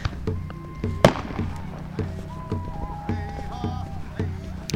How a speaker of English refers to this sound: So I'm walking through walking through camp. I can smell sage. Like there's a lot of sage being burned around here. And you can hear fireworks and singing and cheering. Kind of joyful, just joy.